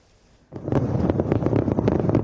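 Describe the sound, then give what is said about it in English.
After a brief quiet moment, a massive fireworks display in Beijing's night sky at the Winter Olympics opening ceremony erupts into a loud, dense barrage of rapid pops and crackling bursts that continues without pause. “The ceremony was a spectacle unto itself, culminating in a massive fireworks display that turned Beijing's night sky into a glorious spectrum of color.”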